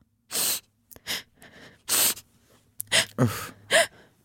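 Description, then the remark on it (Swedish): A voice imitates loud sobbing: a run of sharp, breathy gasps and shuddering inhales, fairly loud, ending in a few strained, wavering cries. “För en gång stötte jag på en gråtare Eh, jag var bara på väg hem och så hör jag bara”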